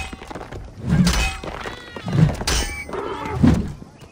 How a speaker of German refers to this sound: Und so klingt es, wenn in Assassin's Creed Origins eine Ptolemäus-Statue zerstört wird.